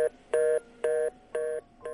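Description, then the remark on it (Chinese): A telephone hang-up tone after a man hangs up a call: a steady mid-pitched beep repeating in even, fast pulses, about four to five beeps with short gaps, clear and alone with no voices. “说完，男人就挂断了电话，只留我傻站在了原地。”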